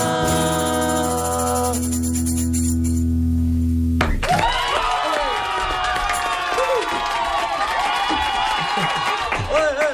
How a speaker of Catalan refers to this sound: Aquests que criden són els oques grasses, eh, que són molt fans del CB.